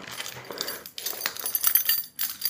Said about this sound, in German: Ich glaube, ich würde auch super gerne mal nach, äh, er sucht jetzt tatsächlich die Schlüssel für das Apartment in New York.